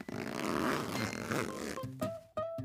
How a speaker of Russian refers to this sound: У тебя есть две части молнии. С одной стороны молния с бегунком, а с другой со штифтом. Я вставляю бегунок в штифт до упора и потихоньку тяну его наверх.